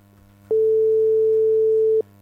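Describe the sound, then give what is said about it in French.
A single steady ringback tone from an outgoing phone call, a clear mid-pitched beep lasting about a second and a half over a faint low hum, with no one talking. “On fait ça à l'ancienne, hein, ça sonne.”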